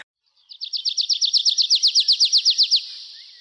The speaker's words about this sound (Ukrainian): Як звучить територія, яку ви захищаєте? Як соловейко щебече.